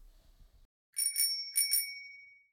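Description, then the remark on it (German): A bright metallic bell rings twice in quick double strikes, loud, its tone ringing on and slowly fading after a brief low rumble at the start, as a postman rings at the door. No one speaks. “so by the way, der Postbote hat bei dir geklingelt.”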